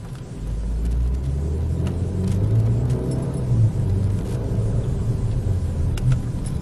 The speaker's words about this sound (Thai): ไปฟังเสียงในขณะที่กำลังทดสอบรถกันอยู่นะคะว่ามีอาการอะไรบ้างค่ะ